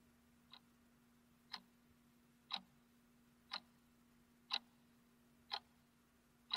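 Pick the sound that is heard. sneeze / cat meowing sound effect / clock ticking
clock ticking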